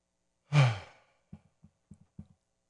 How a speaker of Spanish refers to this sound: Toma una respiración eh, por, la, por, por, la nariz y, luego puedes salir por, por la boca o por la nariz, pero nota la sensación. So, inhalan.